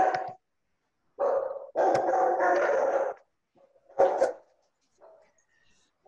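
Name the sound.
dogs barking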